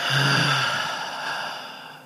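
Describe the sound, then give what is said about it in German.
A long, audible breath pushed out through the mouth after breathing in deeply through the nose, in a breathing exercise, a soft airy whoosh that lasts about two seconds and slowly fades, with no talking. “Wir atmen ganz tief durch die Nase ein und durch den Mund aus.”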